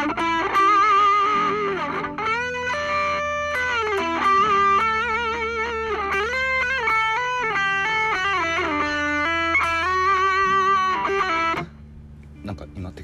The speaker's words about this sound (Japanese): アドリブソロなんて逆にねこれ早い方がね簡単簡単というかごまかしが効くと私は思ってまして